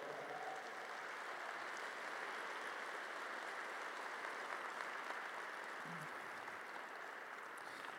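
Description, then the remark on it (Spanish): Steady, dense applause from a large audience, given for the King, fills the whole stretch, a continuous wash of many hands clapping at once with no voices rising above it. “Aleluya, dale un fuerte aplauso al rey.”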